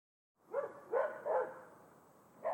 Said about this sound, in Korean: 어딘가 마당에서 개가 짖는다. 누군가 걸어서 지나가면 늘 개 한 마리가 짖고 방심하다 깜짝 놀란 다른 개들은 첫 보초의 소리를 듣고 자신의 개로서의 의무를 완수한다.